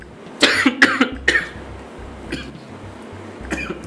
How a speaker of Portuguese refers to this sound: Ó, não esquece, não esquece de digitar três tossidinhas antes é, lá, viu?